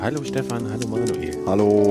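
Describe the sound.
Birds chirp faintly in the background, brief high calls scattered under a few people exchanging greetings close to the microphone outdoors.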